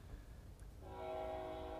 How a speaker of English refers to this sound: I fucking hate that you live in the both bum fuck motherfucker town right next to a fucking train. It doesn't bother me. Okay, but it's in our podcast, mamas. They can hear us. I'm sorry. Can y'all hear the train?